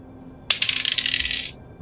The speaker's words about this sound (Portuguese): Vamos rolar esse D10 aqui e vamos ver o que, que eu encontro.